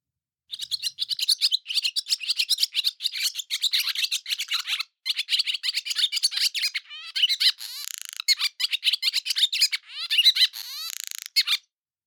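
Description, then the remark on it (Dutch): A barn swallow sings a long, cheerful summer twittering song, rapid chirps mixed with crackly, rasping buzzes and brief pauses, with no voices. “Er zitten allemaal knispertjes in en andere mooie geluidjes. Eh, dat is wat je vrolijk gekwetter noemt.”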